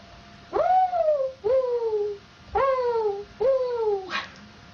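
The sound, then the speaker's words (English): A person's voice imitates a mourning dove, giving four soft, drawn-out, falling coos in a steady rhythm, clear, with brief pauses between each call. “Or Mourning Dove.”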